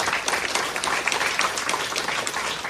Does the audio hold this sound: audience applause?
yes